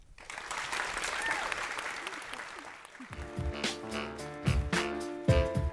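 An audience gives warm applause for two people, a dense, steady patter of many hands clapping for about three seconds, before music with a punchy beat takes over.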